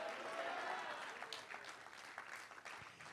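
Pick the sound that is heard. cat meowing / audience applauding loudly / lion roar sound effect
audience applauding loudly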